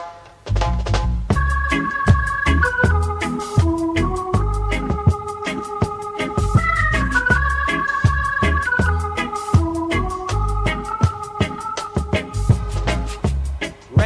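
An original reggae tune plays on radio U101.1, with deep bass, a steady beat of sharp repeated chord stabs, and a sustained melodic line gliding above, all instrumental with no singing.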